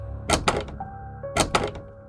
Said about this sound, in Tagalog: Ngunit kahit anong pihit ko sa doorknob ng pintuan ay hindi ko mabuksan. Parang nakalak ito.